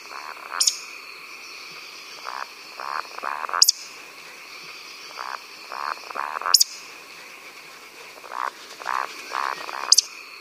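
A male Eurasian woodcock flying in circles gives roding calls: soft, low croaking grunts in short bursts, each series capped by a sharp, very high squeak, repeating about every three seconds with no voices.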